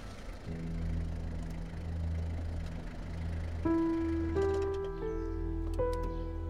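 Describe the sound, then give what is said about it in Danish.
A car engine drones steadily as a car arrives the next morning to pick up passengers, then its pitch climbs in a few distinct steps as it revs up and shifts. No voices are heard. “Næste morgen, efter morgenmaden, kommer Hans i sin bil for at hente Ines og Lissabon.”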